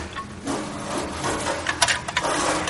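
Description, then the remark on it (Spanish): Someone rummages through wooden drawers inside a house, with continuous scraping and rubbing of wood and a few sharper knocks and clatters toward the end, at a moderate level with no talking. “rebusca en cajones.”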